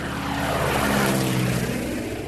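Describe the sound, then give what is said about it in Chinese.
A propeller airplane drones past overhead, a steady loud engine roar with a low humming buzz that swells slightly in the middle before easing off. No one speaks. “飞机飞过天空会留下印记”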